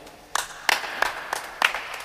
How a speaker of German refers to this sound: Wer klatscht da? Verhalten, sehr, sehr, verhalten, aber vielen Dank. Du hast, du hast ein paar, paar Unterstützer.